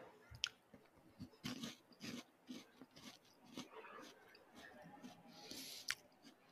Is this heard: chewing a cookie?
yes